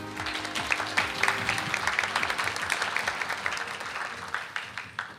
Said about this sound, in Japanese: 盛大な拍手でお迎えください